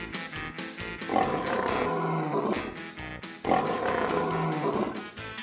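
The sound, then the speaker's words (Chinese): A lion roars twice, each a loud, rough, drawn-out bellow that swells and fades, set against a steady rhythmic beat of sharp percussive hits. “我的叫声可以传到很远的地方。你听”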